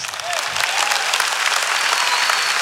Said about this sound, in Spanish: Fuerte ese aplauso